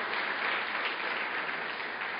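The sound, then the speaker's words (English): A church audience claps steadily in dense, continuous applause for its pastors for securing a new meeting place, a broad textured wash of many hands that holds at an even, fairly loud level for a couple of seconds with no voices over it. “Why don't we just give them a round of applause for all the hard work that went into securing this place for us?”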